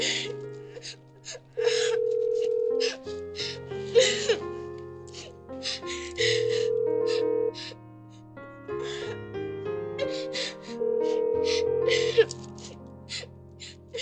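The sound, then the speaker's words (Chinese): A busy-line tone on a phone call to a busy number sounds three times, each a steady mid-pitched beep about a second long, spaced several seconds apart, over breathy gasps and soft whimpering sounds. “您好，您拨打的用户正在通话中，请稍后再拨。”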